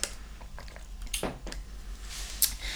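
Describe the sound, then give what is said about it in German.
Soft wet chewing sounds of someone eating sushi, with small squishy clicks and smacks, irregular and quiet, with no talking. “Ich trinke hier einen leckeren Tee, passt zu meinem Sushi, alles mhm.”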